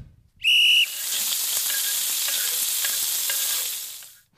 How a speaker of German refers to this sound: Es knuspert und brutzelt.